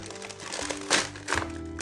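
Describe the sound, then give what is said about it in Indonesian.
Crinkling of a plastic instant noodle packet, with two sharper rustling bursts as it is pulled open by hand, over a faint steady hum. “ada alat teknologi bernama gunting. gunting tapi kita tidak ada gunting”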